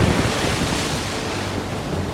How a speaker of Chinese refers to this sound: 雷声轰响，波浪在愤怒的飞沫中呼叫，跟狂风争鸣。